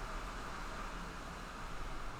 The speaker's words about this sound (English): I'm gonna wait for this stupid ass traffic to pass.